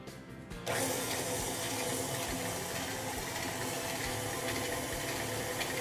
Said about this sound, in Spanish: se pone la margarina con el endulzante. Y prendemos la batidora.